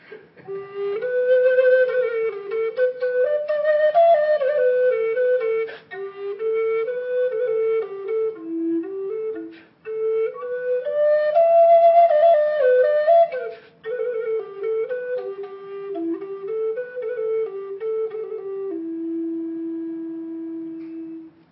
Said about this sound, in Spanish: Y esta flauta del águila nos dice así.